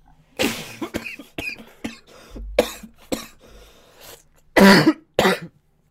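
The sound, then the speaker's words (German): A loud fit of coughing triggered by laughing: several harsh, raspy bursts spread over a few seconds, with short breathy gaps and softer throaty sounds between them, and no talking. “Oh, ich musste lachen, aber durch dieses Lachen musste ich husten.”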